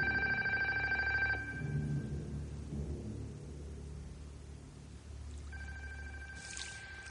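A telephone bell rings twice in a large house at ten o'clock, a bright metallic trill at the start and again near the end with a quiet pause between, over a steady low rumble.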